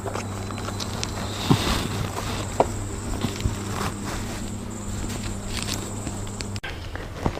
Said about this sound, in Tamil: lift இருக்கும் இடத்தை நோக்கி அவர் நடக்க நான் பின் தொடர்ந்தேன்